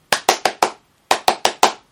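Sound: hand clapping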